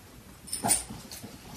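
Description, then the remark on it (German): A dog gives one brief, high-pitched whimper, a short whine that fades quickly. “Geh mal auf deinen Platz.”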